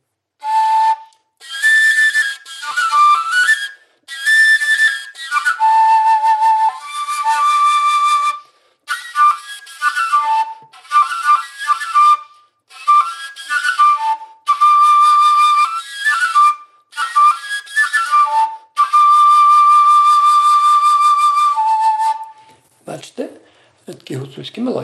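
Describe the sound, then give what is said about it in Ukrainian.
An overtone flute played without a stopper carries a breathy, whistling melody in short phrases, its steady notes leaping between harmonic pitches. It plays loud and alone for about twenty seconds before stopping. “Так оце фрілочки, ви зрозуміли, що це без корка, і вони удосконалюються і різних строїв.”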